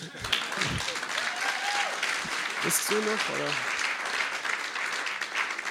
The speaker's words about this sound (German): er ist noch nicht fertig, ihr dürft äh, klatschen trotzdem mal.